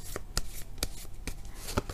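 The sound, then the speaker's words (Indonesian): Tarot cards being shuffled and handled as a card is drawn for a Capricorn love reading, with a handful of crisp, papery snaps at uneven intervals over a soft, steady rustle; the card drawn is The Hermit; no one speaks. “Kartu yang keluar adalah The Hermit.”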